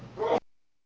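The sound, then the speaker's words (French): A single quick sneeze, a short breathy burst that builds and then cuts off abruptly, heard on its own with no talking. “eh bah ben, décidément, à vos souhaits”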